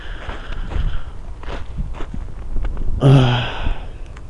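Crunching footsteps on snow during a sunny walk on the frozen Angara River, at a steady walking pace, about two per second, with wind rumbling and buffeting the microphone underneath and a brief voiced sound near the end.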